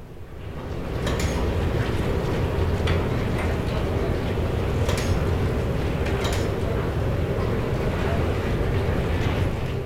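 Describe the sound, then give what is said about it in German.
Heated molten stainless steel is transferred into a transport ladle with a steady, dense roar and low rumble, broken by occasional sharp crackles and hisses, continuous for the whole stretch. “in diesem Moment wird die erhitzte Edelstahlschmelze in die Transportpfanne umgefüllt, bevor es danach zur Gießstrecke geht, wo das flüssige Metall in die Form gegossen wird.”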